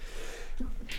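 A single short sneeze, preceded by a quick sharp intake of breath, with a hissy burst at the end. It is moderately loud, and no one speaks.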